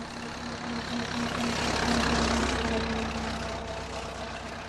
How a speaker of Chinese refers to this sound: 一辆汽车从远方开了过来。